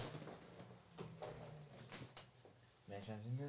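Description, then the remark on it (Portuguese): Several scraping, sliding bumps as chairs are dragged across a floor to clear space for dancing, with a voice cutting in near the end. “Movendo as cadeiras.”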